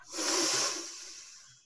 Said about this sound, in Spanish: Y vas a tomar una inhalación súper grande para llenar ese globo súper gordo y grandote. ¿Lista? ¿Listo?